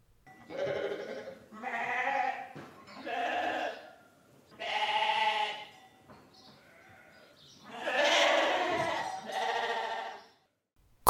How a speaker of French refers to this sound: On entend des moutons.